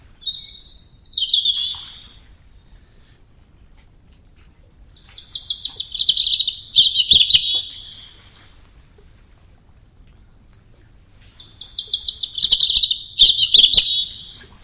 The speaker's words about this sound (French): C'est un chant très timide. C'est tout le contraire du caractère de l'oiseau, qui, qui est un oiseau très vindicatif et intolérant envers ses congénères. Et puis il a un chant tout timide, tout tremblé, très très beau. Chant du rouge-gorge.